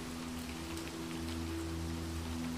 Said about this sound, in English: As the storm rages outside, nature's fury becomes romantic in the refuge of the manor. You approach the windows I look onto the maze, watching as the rain pelts the topiary and the grass yields to the wind.